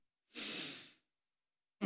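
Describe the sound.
A person demonstrates slow, exaggerated, leisurely in-and-out breathing: one long, airy, hissing exhale lasting under a second, then a pause of silence before the next breath begins.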